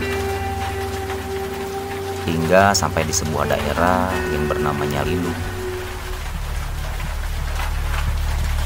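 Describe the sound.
Steady rain hisses throughout during a night motorcycle ride near Tomo in Sumedang, a constant wash of noise beneath a man's voice speaking briefly in the middle, with a low engine-like hum running underneath.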